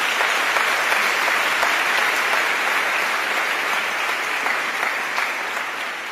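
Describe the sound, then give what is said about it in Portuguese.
An audience applauds the presence of the Lord, clapping steadily for about six seconds, a dense wash of many hands at an even, loud level with no voices standing out, tapering only slightly near the end. “Você pode aplaudir a presença do Senhor entre nós?”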